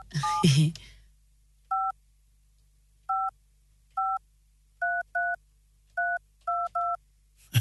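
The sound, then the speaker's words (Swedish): A string of short, clean dual-pitched beeps from a telephone keypad dialing a number to call a listener, nine tones tapped at an uneven pace, preceded by a brief burst of voice and background noise. “Nu ska vi ringa en som har hört av sig.”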